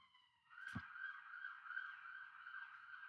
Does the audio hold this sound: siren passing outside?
yes